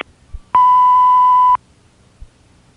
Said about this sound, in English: Hi, I'm sorry we can't answer your call right now. Leave your name and number at the tone.